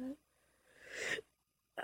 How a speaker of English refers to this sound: my gosh, yawning hurts.